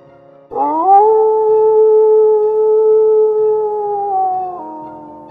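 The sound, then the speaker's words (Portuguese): A wolf howl rises sharply, then holds a long steady note for about four seconds before dipping slightly and fading. It's loud, over a faint low background rumble. “vocês todos escutaram esse uivo.”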